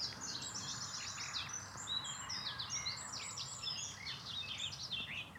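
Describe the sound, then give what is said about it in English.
A nightingale hidden deep in dense undergrowth sings a rich, rapid, continuous run of varied warbling phrases and chirps over a steady low rumble of building traffic. “There is one trying to sing his way through, buried deep in the undergrowth.”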